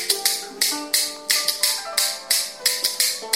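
Bamboo kuaiban clappers are played in a demonstration of the mixed rhythm, also called the train rhythm, bright woody strikes in an uneven pattern of single and doubled hits, about a dozen in quick succession, with no voices.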